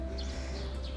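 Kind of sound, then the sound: bird, birds chirping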